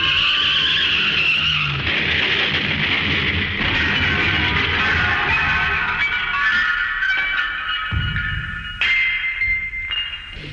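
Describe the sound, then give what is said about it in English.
Loud, drawn-out screech of a runaway garbage truck's tires skidding in the street over the truck's low rumble, sustained for about ten seconds with a few abrupt shifts in pitch, no talking. “She grabbed my laundry and ran into the street, directly into the path of a runaway garbage truck.”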